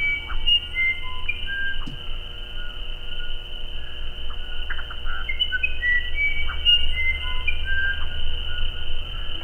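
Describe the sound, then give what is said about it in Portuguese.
An Irapuru bird sings a clear, flute-like melody of whistled notes that rise and fall in short phrases, heard alone over a steady low background hum. “Quem abre a coluna hoje para a gente é o canto do pássaro Irapuru.”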